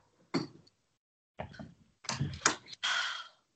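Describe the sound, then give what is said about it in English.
A door is being closed, with a handful of separate knocks, scrapes and rattles over a few seconds, ending in a longer shuffling close. No one is speaking. “should I close the door? Because he's being really annoying.”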